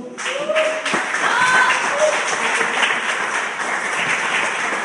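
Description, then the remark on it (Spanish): Audience applause fills the whole stretch, a dense, steady wash of many hands clapping at an even loudness, with faint tonal whistles or voices rising briefly above it. “Por favor, denle un aplauso.”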